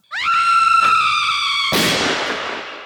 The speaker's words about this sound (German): Und der ist der Einzige, der einen Jingle mitgebracht hat, gell?